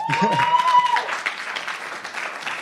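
An audience breaks into steady applause, a dense wash of many hands clapping that starts strong and gradually softens, with a brief tonal whine and a voice at the very start.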